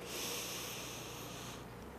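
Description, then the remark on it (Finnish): A single long, airy deep breath lasting about a second and a half, soft, taken during a guided stress-release exercise, then fading into quiet. No talking. “Ja sitten hengitä syvään hetken aikaa.”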